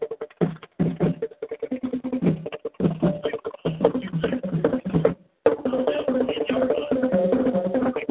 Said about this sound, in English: folks, if you hear the band playing in the background, that's the Somerville Yeguas band playing. They're right here to the right of us. They've been sounding good all night.